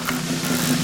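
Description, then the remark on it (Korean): A number wheel, laid level and spun to draw phone-number digits for a weekly Friday lucky draw on a live broadcast, spins with a steady, continuous whirring hum that holds an even level throughout, with no voices. “이게 소리 들리죠? 제대로 돌았어. 아직 돌아.”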